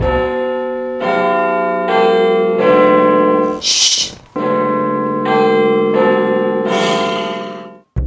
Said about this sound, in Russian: Она создана для того, чтобы на ней сидели, а шум от Биг Бена заставляет людей вскакивать. Тогда скамейка не выдержала, и когда колокол в очередной раз начал стучать, она крикнула «Чш!», чтобы его успокоить.